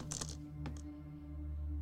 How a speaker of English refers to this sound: well, that's a shit. Yeah, that's a really good roll, dude. I only have two dice. I'm not joking.